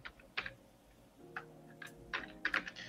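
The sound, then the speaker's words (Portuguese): Irregular clicking of keys on a computer keyboard as someone types notes, in short bursts with brief pauses between, at a quiet level with a faint low hum beneath. “Vou escrever aqui.”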